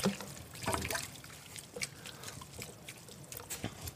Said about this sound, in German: Und jetzt kommt eben Tomaten. das Tomatenbrühe, Tomatenwasser mit relativ, also Wasser mit relativ viel Tomatenmark.